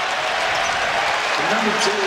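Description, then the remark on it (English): A large crowd at a basketball game applauds steadily in a big arena as the player Spencer comes out, a dense, even wash of clapping that holds at a constant level for about two seconds, with murmuring voices mixed in. “And Spencer comes out to a nice round of applause there they're a different team with him.”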